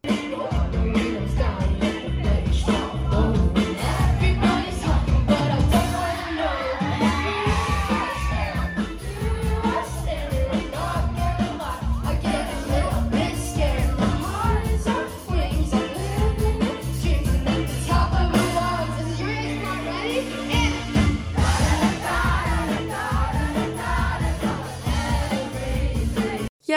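A live concert recording of a song, played last at the show: loud, steady music with a heavy bass beat and melody, with a cheering, singing crowd blended throughout, holding full volume for the whole stretch.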